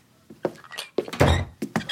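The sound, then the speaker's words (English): A heavy door thuds shut with a deep, resonant knock, preceded and followed by a few quieter bumps and clicks. “door, please, it's me.”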